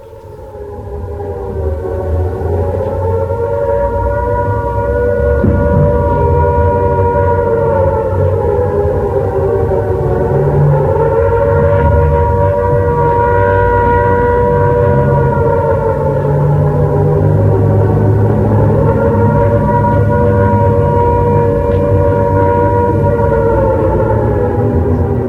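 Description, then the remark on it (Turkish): A loud civil defense air raid siren wails continuously during the Japanese air attack on American navy ships anchored at Pearl Harbor, its pitch rising and falling in long slow cycles over a low rumbling background, with no voices present. “Şimdi kulağımıza çalınan ilk ses, Pearl Harbor'da demirli Amerikan donanmasına ait gemilere yapılan hava saldırısına ait.”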